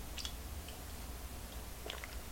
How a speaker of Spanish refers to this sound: Pero primero me voy a dar este sorbito que he estado refrescando con la cucharita y mientras tanto hago también el chin chin musical de este programa. Ahora me voy a dar el primer sorbito del día.